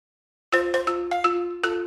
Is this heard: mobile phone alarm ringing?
yes